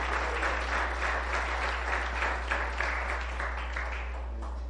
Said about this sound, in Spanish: Por favor, démosle un aplauso al Señor por la vida del pastor Walter.